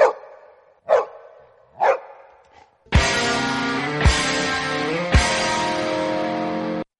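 A dog barks three times in quick, evenly spaced succession, loud, then a dense burst of loud, sustained music takes over.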